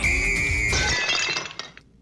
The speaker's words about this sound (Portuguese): Mais uma coisa o microfone, o eh, microfone uh, ficou caiu, nas mãos caiu